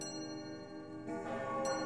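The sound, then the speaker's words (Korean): Clock bells strike thirteen times on a bright, cold April day, chiming in layered, ringing tones, with a fresh strike landing over the lingering hum of the previous ones, growing slightly louder. No one speaks. “시계들의 종이 13번 울리고 있었다.”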